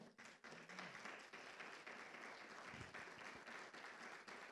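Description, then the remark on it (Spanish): A large audience applauds loudly and steadily for the Lord, dense overlapping claps filling the space for several seconds with no voices standing out. “¿por qué no le da un fuerte aplauso al Señor?”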